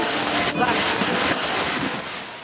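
Ocean surf and wind at a surf beach, heard while surfing, blend into a steady, loud roaring wash, with a brief swell of breaking water midway and the roar easing slightly toward the end.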